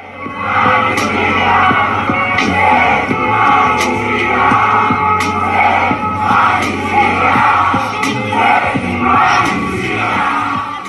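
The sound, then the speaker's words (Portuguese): A large protest crowd in Brazil chants the slogan "sem anistia" (no amnesty) in unison, voices rising and falling in a steady repeated rhythm, loud and continuous with scattered shouts over the top. “A palavra de ordem que mais se ouviu foi sem anistia.”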